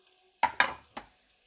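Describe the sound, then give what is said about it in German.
Chopped onion and garlic hit hot oil in three quick bursts of crackling sizzle, each flaring loudly then fading, with no voices. “Dann hauen wir gleich mal die, die Zwiebel mit dem Knoblauch rein.”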